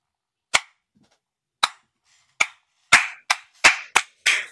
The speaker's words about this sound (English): applause is due.